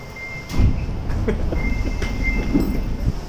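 A steady low rumble of a Sapporo Municipal Subway Namboku Line train in motion in Sapporo, Hokkaido, Japan, heard from inside a carriage, with rhythmic clunks from the wheels at irregular intervals and a faint high whine running through.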